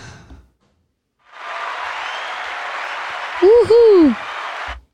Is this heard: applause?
yes